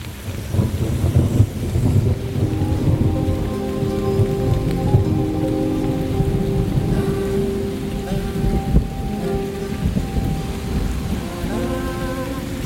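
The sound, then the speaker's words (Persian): Steady rain pours down outside Abbas's shop, pattering on surfaces, while low rumbles of thunder roll underneath throughout. No one speaks. “آروم از مغازه عباس خارج شدم داشت بارون میزد”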